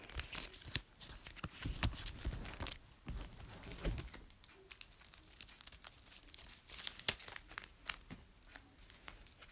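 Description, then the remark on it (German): A plastic bag crinkles and rustles for several seconds as something is packed into it, a steady run of irregular crackling snaps with a few louder crunches, and no voices. “So, ist jetzt in der Tüte.”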